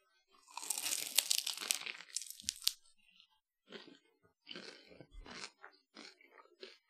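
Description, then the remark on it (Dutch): A loud crunching bite into a crisp raspberry-pistachio pastry, lasting a couple of seconds, followed by several shorter, quieter chewing crunches in irregular bursts. No one speaks. “Dus ik zou zeggen, neem maar een hapje.”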